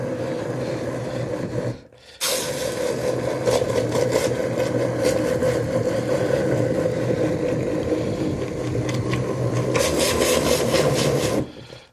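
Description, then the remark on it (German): A hand blender grinds steadily through thick rhubarb jam, a loud, rasping motor drone that cuts out briefly near the start, then runs on continuously with a gritty, churning texture. “Das ist für den Mixer jetzt harte Arbeit.”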